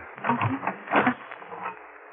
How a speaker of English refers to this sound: Now, we'll lock this door on the outside.